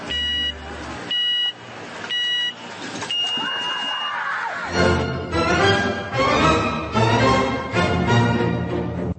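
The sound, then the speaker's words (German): An alarm sound effect jingle: three sharp, evenly spaced electronic beeps, a brief sustained tone, then a loud, busy burst of music that carries on to the end. “Debakelalarm in 3, 2, 1.”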